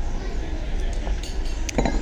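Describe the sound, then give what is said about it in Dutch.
A coffee cup clinks lightly two or three times as someone takes a sip of coffee, short bright taps near the end, over a steady low background rumble. “Ondertussen neem ik wel een slok koffie.”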